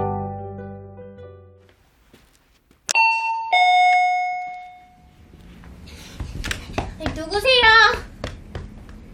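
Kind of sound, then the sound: household object, doorbell ringing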